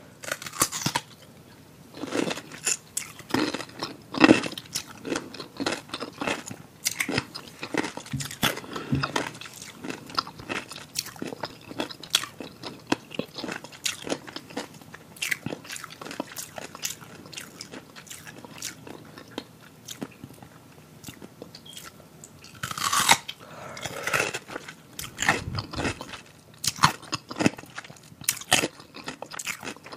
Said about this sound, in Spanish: hay otras personas que es totalmente desagradable el sonido de, masticar. A ver, ¿por qué no ponemos una muestra fría de cómo se escucha cuando mastican con la boca abierta?